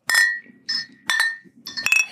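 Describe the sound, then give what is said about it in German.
Several bright, ringing clinks of glasses touching in a toast, four quick strikes spread over about two seconds, each with a short shimmering decay, fairly loud with faint murmuring underneath. “so, dann ähm, Prost. Ja. Prost. Ja, zum Wohl.”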